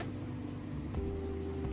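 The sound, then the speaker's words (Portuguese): An electric fan runs steadily in a bedroom in the early hours of the morning, a constant whooshing air noise over a low motor hum, with its pitch shifting slightly partway through. It is moderately quiet and there is no talking. “e um pouquinho de barulho do ventilador.”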